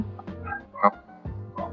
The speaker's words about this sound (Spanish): Mira, y perdón que mi, mi perra como que no para de ladrar. No, no te preocupes, hace un buen, hace un background, un buen background.